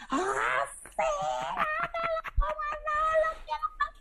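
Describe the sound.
A voice imitates a scream with a series of drawn-out, wavering wails and moans, several loud high-pitched cries broken by short pauses.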